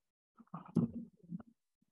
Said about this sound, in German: Ja, okay, ich weiß nicht, ob du den Donner hörst, aber hier ist auf jeden Fall gerade Gewitter.